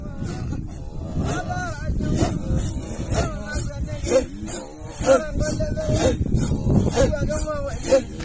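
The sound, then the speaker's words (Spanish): A group of Maasai voices chants and sings together in a steady rhythmic welcome song with dancing and small jumps, deep throaty tones under higher calls, recorded fairly loud outdoors on a mobile phone. “se pusieron a cantar, a bailar, me hicieron bailar con ellos un poco también los saltitos esos”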